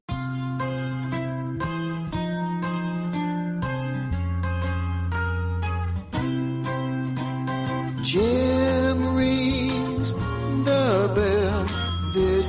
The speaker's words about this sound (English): rings the bell.